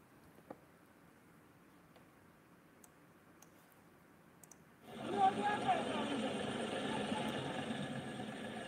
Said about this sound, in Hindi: tractor कुछ चीज़ खींच के ले जा रहा है क्या ले जा रहा है लीजिए भैरव बाबा खींच के ले जाए जा रहे